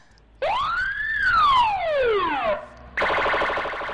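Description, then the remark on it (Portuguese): A loud wailing siren, used to mark the start of a spoiler discussion, sweeps up in pitch and then glides back down, followed by a short pause and a harsher, buzzing alarm tone that starts abruptly and continues. “Agora com spoiler, a partir do momento dessa sirene, que essa sirene vai tocar aqui agora.”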